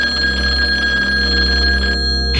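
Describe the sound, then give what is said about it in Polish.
A telephone rings loudly, a steady bright trilling tone that holds for about two seconds before cutting off near the end, with no voices; the police receiving an anonymous call at 7:40. “O 7.40 policja otrzymała anonimowy telefon.”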